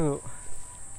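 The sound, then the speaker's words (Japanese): A cicada drones at night in one steady, high-pitched buzz throughout, moderately loud, with a brief voice at the very beginning and a faint background murmur beneath. “夜のゼミ確かセミって夜間も活動するんでしたっけかそうでしたっけかそうでしたっけ”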